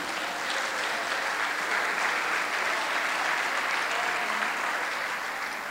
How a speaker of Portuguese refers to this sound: Você pode aplaudir a Deus por isso?